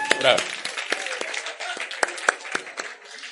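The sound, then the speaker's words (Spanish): A group of people applauds themselves for a few seconds after completing a group exercise in a class, a steady patter of hand claps with a few sharper, louder claps standing out and some brief voices mixed in. “Listo, dése un aplauso a ustedes.”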